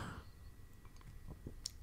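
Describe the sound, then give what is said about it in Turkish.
Quiet sipping of water: a few soft wet mouth clicks and a small gulp near the end, over faint background hiss, with no talking. “Bakın bir yudum daha su içiyorum.”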